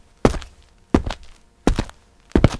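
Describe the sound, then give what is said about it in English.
Four heavy shoe footsteps land at a slow, steady pace, each a solid thud with a scuffing heel-to-toe impact, separated by quiet pauses, made as foley with a shoe used to sound like a heavy person. “And this is the shoe that I use to, uh, when I have to be a nice heavy guy.”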